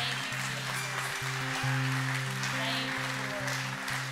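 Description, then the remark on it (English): Steady, dense applause from an audience, a continuous wash of many hands clapping in praise, over sustained low organ-like chords that shift every half second or so, during a midweek church service. “Somebody give him a hand clap of praise in the house.”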